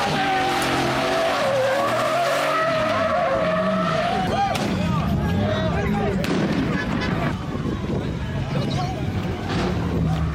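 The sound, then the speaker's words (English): A loud street takeover scene at an intersection: engines roar and tires squeal in long sliding screeches, with a few sharp firework pops and indistinct crowd voices underneath as police arrive. “They have fireworks at these events. And then you hear the police come, they just scurry to their cars and they move on to the next intersection.”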